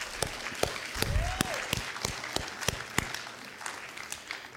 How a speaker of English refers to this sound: And, church, would you please give them a round of applause because they deserve it.